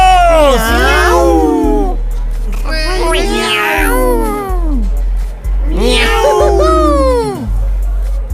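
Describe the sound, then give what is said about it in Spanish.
Three long, loud meows sound in chorus, several cats crying together in each burst, with short pauses between them over a steady low hum. “¡Tres miau por nuestros amigos!”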